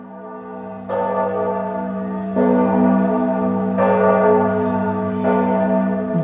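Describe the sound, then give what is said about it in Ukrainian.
Church bells ring out in a steady sequence of strikes, each new toll landing about every one and a half seconds over a sustained, humming resonance. The sound is fairly loud, with no voices. “дзвони.”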